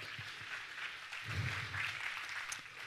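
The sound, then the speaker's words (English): A church audience applauds after a morning sermon, in a steady, dense wash of clapping that holds for about three seconds, with a few cheering voices rising in the middle. “Let's cheer him on.”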